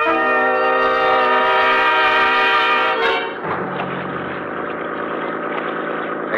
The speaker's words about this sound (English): Except for the stars far overhead, the night was black as ink, and the 50 horse outboard skimmed us along at better than 30 miles an hour. Believe me, it was a strange feeling, almost like flying through space.